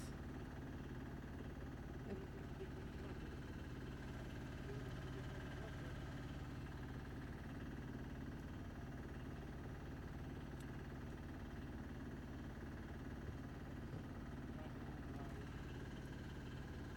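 A boat engine idles continuously while the boat is being anchored, with a steady low, rumbling drone and slight vibration. It is moderately loud, with no clear voices over it.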